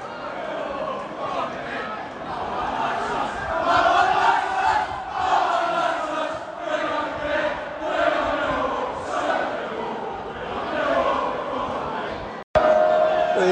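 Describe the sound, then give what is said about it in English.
A dense crowd of Millwall football fans chants and roars together in the upper West Stand of a stadium at night, answering visiting Hammarby supporters, a loud sustained wall of voices rising and falling in waves, with a brief cut near the end. “Obviously, there's been a response from the, from the Millwall. All in the West Stand upper tonight.”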